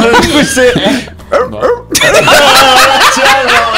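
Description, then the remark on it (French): A person imitates a Dalmatian dog with a burst of yapping, dog-like barks with their voice, several rapid yips in a row, loud, with a brief pause midway before more barking sounds. “Non, il, faisait, le chien, là, vas-y, fais-le.”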